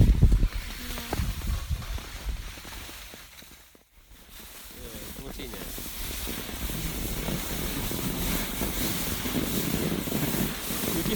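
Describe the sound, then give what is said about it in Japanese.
Skis hiss and scrape steadily over snow in a continuous, gritty rush, with wind noise buffeting the microphone and a brief lull partway through before the sliding picks back up; recorded by a skier while skiing downhill. “ちょっとスキーのね、お供なんかも少し撮ったんで、最後にあの流してみたいと思いますが、まあ、滑ってるね、音聞いても面白くないかもしれませんけども”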